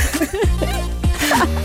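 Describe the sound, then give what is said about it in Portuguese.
A sudden sneeze bursts out among short voiced sounds and light laughter, sharp and loud against the surrounding vocal noise. “Saúde.”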